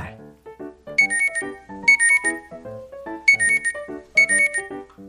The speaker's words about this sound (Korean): 날7 시부터 10분 간격으로 울리던 알람이 9시가 돼야 잠잠해집니다.